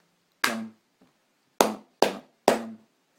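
Four sharp, loud hand claps in an uneven, syncopated rhythm: a single clap, a pause, then three quicker claps in succession. No voices.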